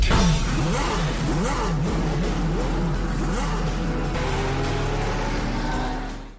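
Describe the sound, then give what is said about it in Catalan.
A powerful car engine revs hard and loud, pitch surging up and down in repeated bursts over a constant rumble, with no voices, before fading at the end. “Doncs va sobre carreres de cotxes il·legals i robatoris, i aquí l'ha anomenat The Fast and the Furious espanyola.”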